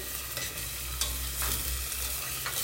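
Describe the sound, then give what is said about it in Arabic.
Onions frying in hot oil or butter as the first step of an oat soup, a steady sizzle with crackling pops and the occasional scrape of stirring, no voices. “سامعين صوت آه، القلي؟”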